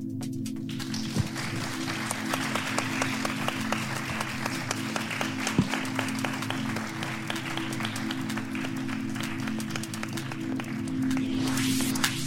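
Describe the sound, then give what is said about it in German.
A live audience applauds steadily throughout, a dense wash of many hands clapping, with a low steady hum underneath and no one speaking. “Und damit sage ich ja, vielen Dank und bis bald und danke nochmal an das Publikum hier vor Ort.”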